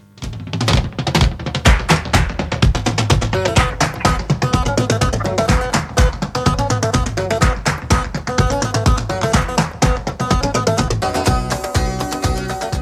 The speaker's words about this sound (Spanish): 16 minutos sobre las 4 de la tarde, estamos en Café con Gotas y como todos los miércoles, cuando suena esta sintonía,